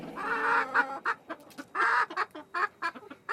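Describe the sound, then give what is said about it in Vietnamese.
A hen clucks repeatedly in short, uneven bursts, with a few longer drawn-out squawks mixed in, fairly loud, with no voices. “Ta em thấy con gà nó giỏi thật đấy, ngày nào cũng đẻ trứng được.”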